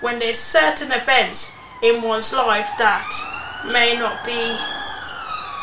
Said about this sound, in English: And if you heard that, that was an emergency vehicle just going past because I live on the main road. So apologies for the noise, but I can't do nothing about that because at the minute I live on the main road